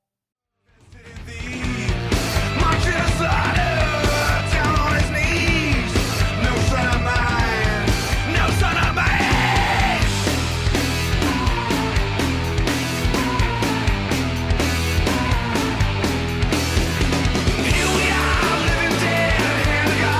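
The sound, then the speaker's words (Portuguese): A loud, dense punk rock song with distorted guitars and pounding drums, a strained, shouted lead vocal riding over the wall of sound after a brief fade-in, sustained at full energy throughout. “vai ter claramente um som muito mais virado para o punk rock”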